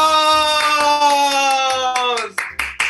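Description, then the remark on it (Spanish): Applause rattles beneath a loud, sustained pitched tone that bends downward, then breaks into a few separate sharp claps at the end; applause for the people who make the Dramarama MX program. “¡Aplausos!”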